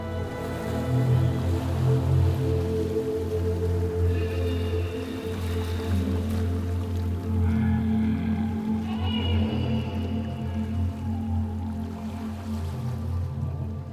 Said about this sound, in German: ein Meer voller träumender Wale. Wellen, Wale und Unterwassergeräusche sind dabei in einem Mixer einstellbar.